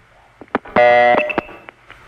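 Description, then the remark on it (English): A telephone trunk handshake tone from Canton, on a trunk reached through Youngstown, Ohio: a few sharp clicks, then a loud, steady buzzy tone holding for about half a second before breaking into more scattered clicks and faint chirps, with no voices. “And that's the handshake from Canton.”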